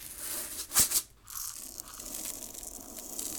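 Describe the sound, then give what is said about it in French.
Two sharp crunches in quick succession, like teeth cracking small crunchy organic pumpkin seeds, followed by a soft, faint rustling chew. No one speaks. “À la place, elle caquetait en grignotant des graines de courge bio.”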